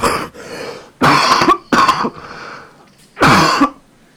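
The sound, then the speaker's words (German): A sick person coughs hard several times in quick bursts, with harsh throat clearing between them, loud, with no talking. “bah, widerlich. Ihr musstet das mit anhören, aber wie ihr hört, ich bin krank.”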